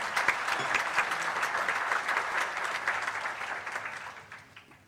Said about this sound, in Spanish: Yo, yo, sugiero que hagamos eh, un aplauso para, para todos los panelistas.